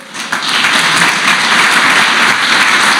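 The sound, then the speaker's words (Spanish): An audience bursts into loud, sustained applause for the Lord, a dense wash of many hands clapping steadily for several seconds with no voices standing out. “Si están entendiendo, dale un aplauso fuerte al Señor.”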